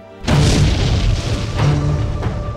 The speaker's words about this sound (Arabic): أحسست بأنني أتمايل من شدة الانفجار وأنزع قلبي من بين ضلوعي ليعانق الرعب في عيني ركضت الى النافذه التي سلم زجاجها من الكسر فتحتها لاستطلع مكان وقوع الانفجار